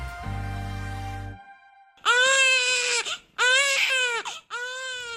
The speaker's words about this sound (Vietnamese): Tiếng khóc của trẻ sơ sinh khiến sữa mẹ được tiết ra. Các nhà nghiên cứu tại Đại học New York, Mỹ đã phát hiện ra rằng việc nghe tiếng khóc của trẻ sơ sinh sẽ kích hoạt giải phóng oxytocin, một chất hóa học trong não kiểm soát việc giải phóng sữa mẹ.